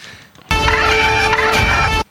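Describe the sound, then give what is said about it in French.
A loud, shrill squawk of a porg, a fictional creature in a film trailer, erupts suddenly and holds for about a second and a half, harsh and buzzy with ringing overtones, then cuts off abruptly. No voices. “Non, un porg.”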